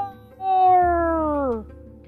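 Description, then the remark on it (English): A voice imitates the roar of a dragon that Hiccup has just fired at with his dragon-catching invention, the Mangler, into the darkness from high on a cliff: one drawn-out, tonal cry lasting about a second, sliding steadily downward in pitch. It is fairly loud, then cuts off. “Then he heard a loud roar”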